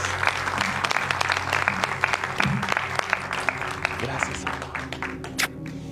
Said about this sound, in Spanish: ¿Por qué no le damos un aplauso enorme a sus pastores, a sus servidores?